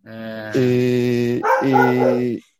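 An angry dog barks, giving two loud, drawn-out, strained vocal bursts back to back with barely a pause, with no talking over it.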